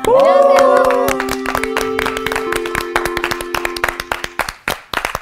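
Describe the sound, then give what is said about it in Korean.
An audience claps enthusiastically to welcome an arriving guest, a dense burst of sharp hand claps that thins out toward the end, with a sustained musical tone or voices ringing underneath at first. “아, 왜 이렇게 박수를 그렇게 쳐?”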